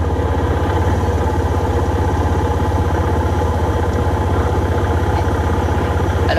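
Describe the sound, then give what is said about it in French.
A quad bike engine idles steadily, a loud, continuous low rumble with a fast, even throb that holds unchanged throughout, with no voices over it. “Par contre, si vous conduisez un quad comme une tondeuse à gazon, ne vous amusez pas à conduire votre tondeuse à gazon, bien sûr.”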